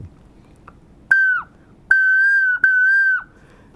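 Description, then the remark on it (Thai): Three clear whistled notes at a steady pitch around the note sol, each rising slightly at the start and dipping at the end, mimicking an Asian koel's call; fairly loud over a quiet background with no talking. “ผมก็เลยสงสัยว่า เวลาที่นกกาว่าวมันร้องเนี่ยเสียงที่เขาร้องตอนนั้นที่ผมจับได้นะครับ เขาร้องเสียงประมาณตัวซอนนะครับเสียงเนี้ยคือเสียงตัวซอน”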